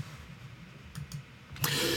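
Two quick, soft clicks close together as someone clicks quickly ahead, then a sharper, louder click followed by a burst of hissy noise. No voices are present, only a faint low hum underneath.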